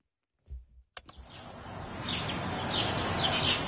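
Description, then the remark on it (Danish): Steady outdoor city ambience by the water in Florida, a broad wash of background noise with birds chirping and calling throughout, preceded by a couple of brief low thumps at the start. “Bystøj.”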